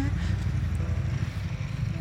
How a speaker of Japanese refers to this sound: ちょっとバイクの音がうるさくなりそうなので移動しますね。